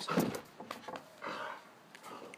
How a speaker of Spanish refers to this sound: Aquí le está, aquí está ladrando